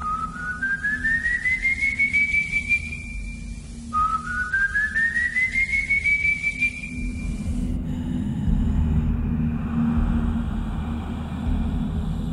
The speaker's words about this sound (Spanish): Dicen, justo después de escuchar, en algunos casos, una extraña melodía, un extraño silbido. Para los habitantes del llano, el auténtico sonido de la muerte.